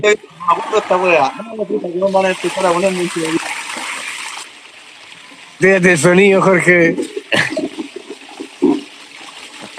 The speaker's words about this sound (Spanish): En esta sección que lleva por nombre Tire la cadena.